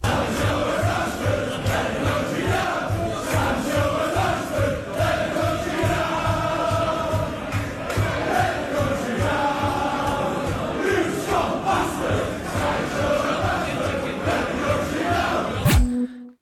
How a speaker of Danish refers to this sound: hvor at man hører øh, Leeds-fans synge, og jeg har taget et lille lydklip med